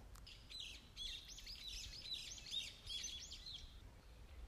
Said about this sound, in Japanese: 今日は甥っ子とよく遊びに来る近くの公園に来ました冒険の森という公園の中で収録していますちょっとね鳥のさえずりとかも聞こえたらいいなぁなんて思ってるんですがこのマイクで拾えてるでしょうかね鳥の鳴き声が聞こえますか